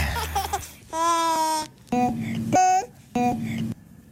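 Baby coos and babbles from a baby's first year of life, chopped into short pitched bursts and sequenced into a rhythmic rock-style riff of a classic rock song, with a few sustained squealing notes repeating one after another, loud.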